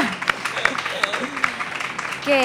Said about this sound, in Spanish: Sí, aplauso, por favor.